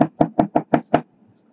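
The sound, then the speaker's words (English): Six quick, firm knocks on a wooden door in an even rhythm, fairly loud, in the morning, followed by a brief quiet tail with no voices. “The next day in the morning, he hears a knock at the door.”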